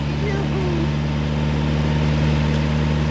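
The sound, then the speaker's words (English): The engine of a vintage Nazzaro car, like the 1913 Targa winner, runs steadily at a low, even idle, its deep rumble constant throughout with no change in pace. “We journeyed on in a Nazzaro just like the Targa winner of 1913.”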